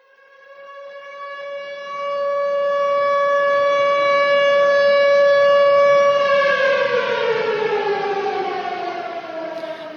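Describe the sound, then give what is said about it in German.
A loud air raid siren wails on a single sustained pitch, swelling in volume, then begins to wind down, its tone sliding lower toward the end. No voices are heard. “Also das ist ganz klar, das geht einem durch Mark und Bein, das ist eine Sirene, ein Bombenalarm.”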